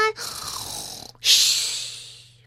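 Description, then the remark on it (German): A person imitates snoring: two drawn-out, breathy snore sounds, a rasping inhale followed by a longer hissing exhale, with no talking. “Ich schnarche schon”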